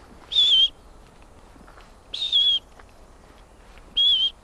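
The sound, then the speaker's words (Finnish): Three short, high whistled notes, each gently falling in pitch, repeated at slow even intervals: a person imitating the monotonous call of a wood warbler, clear against a faint background. “semmoinen hyvin niin kuin monotoninen tota, kutsuääni, niin se on myös semmoinen, jota pystyy matkimaan.”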